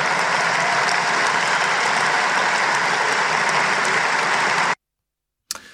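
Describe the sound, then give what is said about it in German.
Steady, dense audience applause with many hands clapping at once, loud and sustained for several seconds, then cutting off abruptly into silence before a brief burst resumes at the end. “Ja, gab einen ganz ordentlichen Applaus dafür.”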